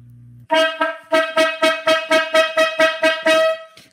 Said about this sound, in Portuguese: Olha a corneta aleatória chegando novamente.